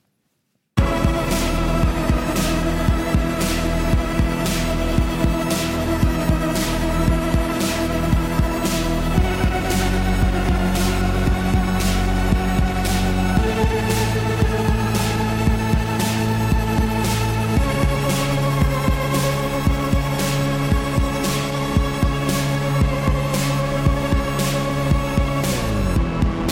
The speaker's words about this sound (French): Ce son électro, c'est le vôtre